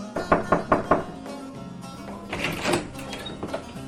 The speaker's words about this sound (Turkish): Nasrettin Hoca'nın kapısı çalınmış, hoca kalkıp açmış ve komşusunu elinde boş bir bardakla görmüş.